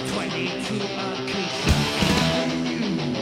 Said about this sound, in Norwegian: Basstromma. Det er fett. Faen, det er rått! Ja, det er dritfett.